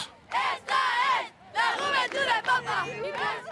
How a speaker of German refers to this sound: Wir sind die Jugend des Papstes, skandiert die Menge.